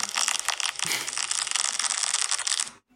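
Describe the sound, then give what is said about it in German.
Fine, continuous crackling of milk foam on a cappuccino, a dense, loud fizz of tiny pops, steady for nearly three seconds before stopping abruptly. “Das ist interessanterweise ist das das Knistern von Milchschaum auf dem Cappuccino.”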